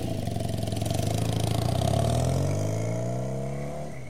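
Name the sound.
motorcycle engine running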